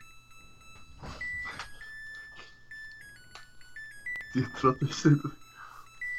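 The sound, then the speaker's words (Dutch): A washing machine plays its end-of-cycle tune, a string of steady electronic beeps stepping up and down in pitch, while people talk over it and a voice asks a question. “Dat is mijn wasmachine die zingt dat hij klaar is.”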